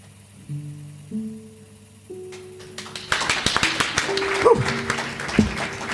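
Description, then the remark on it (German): Hands clap along to a song, starting partway through: a quick, steady run of sharp claps layered over sustained musical tones and growing louder toward the end. “Da hätte ich fast falsch geklatscht.”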